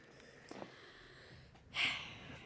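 A single breath rushes into the microphone, a short breathy hiss swelling for about half a second and fading, with a softer puff just before it and no talking.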